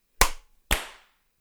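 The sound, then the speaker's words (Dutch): After a countdown of 3, 2, 1, two sharp, loud hand claps about half a second apart to sync a recording, each with a quick ringing decay, with no talking over them. “Dan weer even schot opengooien. Dan gaan we even klappen. 3, 2, 1.”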